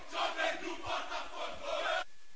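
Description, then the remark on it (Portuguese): A crowd of voices chants together in a loud, rhythmic surge, a chant of Esquadrão Baile, the Botafogo supporters' group, set to a funk beat, with pulsing accents roughly every half second before it cuts off abruptly. “Vamos ouvir então é, Esquadrão Baile, a torcida do Botafogo, uh, em versão funk.”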